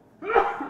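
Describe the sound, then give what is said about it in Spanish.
A single abrupt sneeze bursts out, a quick sharp explosion of breath with no talking around it. “Salud.”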